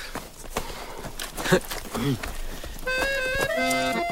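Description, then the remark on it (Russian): Hurried footsteps of soldiers carrying rifles and running along a trench thud and scuff for a few seconds, uneven, with faint voices underneath, before sustained music with steady held notes takes over. “Взяв винтовки, парни бегут по окопу.”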